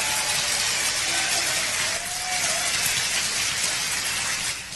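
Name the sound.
audience applause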